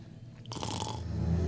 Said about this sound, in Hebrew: האם נחירות הן מוסיקה?